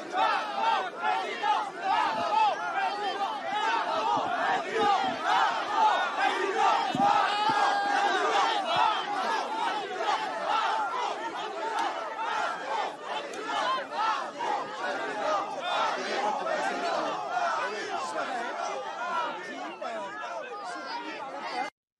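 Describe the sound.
A large crowd boos and chants continuously as Marine Le Pen visits Saint-Pierre-en-Auge in Calvados, France, a dense wall of shouting voices with rhythmic cries rising through it, loud and sustained for the whole stretch.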